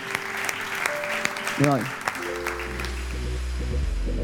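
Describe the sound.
An audience at a Casa de Jesús church service claps steadily for God after a prayer, in a dense, continuous wash of applause, with sustained organ or keyboard tones and a brief rising voice or whoop partway through.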